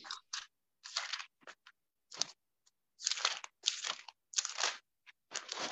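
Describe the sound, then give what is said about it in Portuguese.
Thin Bible pages being flipped and rustled to find Psalm 4, verse 3, a series of crisp, crinkly papery swishes in an irregular rhythm, with no talking. “Esse barulho de página da Bíblia, gente.”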